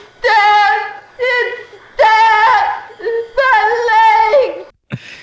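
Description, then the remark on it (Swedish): A woman, the aunt in a hospital scene of a film, wails and shrieks hysterically in several long, high-pitched bursts with wavering tone, separated by short gasping pauses, loud and strained throughout. “Måste bara nämna, jag kommer inte ihåg exakt vilken sjukhusscen det är med moster, men när hon skriker här.”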